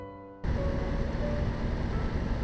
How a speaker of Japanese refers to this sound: はいこの音ですね、えー、この音はですね、えー、あれですダンボッチの標準でついてくる、えー、このね空気を送るためのファンですねこれをつけてます